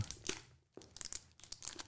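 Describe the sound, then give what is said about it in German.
Crinkling food packaging being opened: dense, irregular crackles and rustles in quick bursts, bright and fairly quiet, with a short pause midway before the crinkling resumes. No talking. “da ist was drin, also da ist ein Lebensmittel drin. Ja. Okay? Mhm. Das knistert.”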